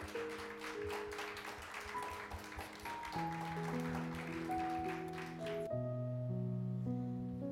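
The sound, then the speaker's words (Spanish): Steady audience applause welcoming a pastor about to preach, a dense wash of many hands clapping over sustained organ-like chords; the clapping stops abruptly near the end, leaving only the chords ringing. “Un aplauso.”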